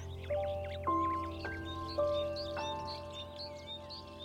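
Many small birds chirp and twitter steadily in the background while soft, sustained chime-like tones ring out one after another beneath them. No one speaks.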